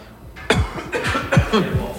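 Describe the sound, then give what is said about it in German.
A reporter on location in Davos coughs several times in quick succession, in short harsh bursts, with no talking in between. “im letzten Moment müssen husten, Entschuldigung.”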